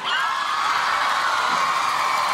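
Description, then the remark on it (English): A large crowd cheers and whoops continuously, a loud, dense wash of shouting voices with high-pitched squeals that holds steady throughout without pause. “Wow, what a great crowd. Give it up yourselves.”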